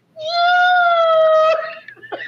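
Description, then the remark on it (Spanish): A female house cat lets out one long, loud, drawn-out meow, steady and wailing for over a second before breaking off into faint shuffling noises. “la gata de casa, sí. Ahí. Pero era para que le abrieran la puerta”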